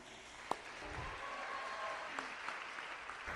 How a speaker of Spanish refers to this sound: Así que ustedes son los protagonistas de todo lo que viene y quiero que le den un fuerte aplauso a sus líderes aquí representados.